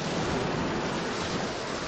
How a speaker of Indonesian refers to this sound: Hal itu terjadi ketika kapal tersebut oleng karena ombak laut.